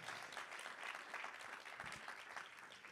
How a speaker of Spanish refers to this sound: Si usted lo cree, dele un aplauso fuerte en esta mañana al Señor.